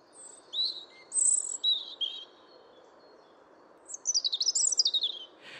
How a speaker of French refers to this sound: Les oiseaux chantent donc majoritairement au printemps, sauf chez l'exception, comme le rouge-gorge, qui chante encore beaucoup durant la saison hivernale.